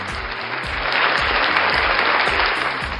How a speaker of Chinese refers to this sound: 鼓掌，说得好。